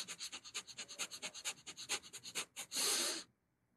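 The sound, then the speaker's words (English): Rapid, rhythmic forceful breaths of a very fast hatha yoga breathing technique, about twenty quick sharp exhalations in under three seconds, ending in one longer drawn-out breath, with no talking. “you do a, a form of very fast breathing and then hold the breath and then move the awareness down to the bottom of the spine and tap and raise this incredible energy, which is called the Kundalini.”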